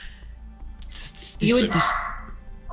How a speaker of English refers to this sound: Sorry about the barky dog.